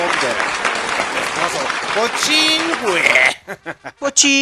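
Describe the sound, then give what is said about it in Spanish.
A dense burst of crowd applause lasting about three seconds, with a few cheering voices rising through it, then trailing off into several short, choppy bursts of clapping. “Aplausos, maldita sea.”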